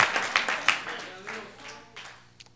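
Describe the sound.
A church audience bursts into scattered applause for the Lord Jesus Christ, sharp claps rising and then gradually thinning out, with murmuring voices and a low hum underneath.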